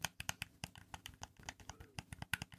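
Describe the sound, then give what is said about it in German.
Rapid, irregular plastic clicks of the buttons on a Nintendo Switch Pro Controller being pressed, fairly quiet, with no voices over them. “Das ist ein Nintendo Switch Pro Controller.”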